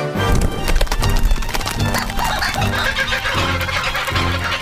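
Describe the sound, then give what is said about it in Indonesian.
A loud chorus of more than a dozen kookaburras laughing as they fly out of an opened house window, their cackling, rising-and-falling calls overlapping continuously, with no voices. “Ini namanya burung kokabura.”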